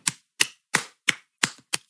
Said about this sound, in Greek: Σηκώνομαι όρθια, standing ovation και χειροκροτώ